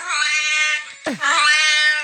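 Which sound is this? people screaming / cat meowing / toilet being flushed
cat meowing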